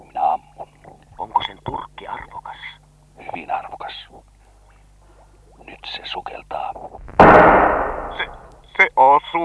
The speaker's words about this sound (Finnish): Oi, Tarkasti ammuttu kapteeni.